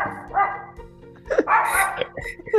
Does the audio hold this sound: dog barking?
yes